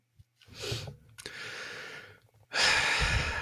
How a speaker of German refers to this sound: Ein tiefes Atmen.